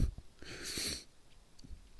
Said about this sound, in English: And uh, we're about to sneeze here, excuse me.